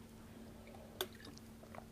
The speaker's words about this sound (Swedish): tar en klunk vatten.